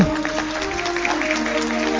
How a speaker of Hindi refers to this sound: तालियां बजा दें